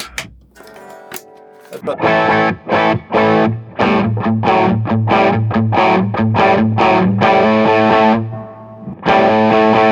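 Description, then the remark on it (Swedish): A distorted electric guitar with a humbucker pickup plays loud, rhythmic chopped chords in a steady pattern, pausing briefly near the end before ringing out again. “Och om du eh, passar på att eh, byta gitarr till... Eh till en handbacker här då.”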